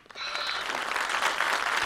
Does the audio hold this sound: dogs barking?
no